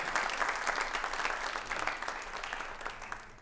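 A crowd claps steadily for several seconds, a dense, continuous patter of many hands at a fairly even level without pause, with no voices standing out.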